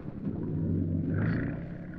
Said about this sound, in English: a boat leaving.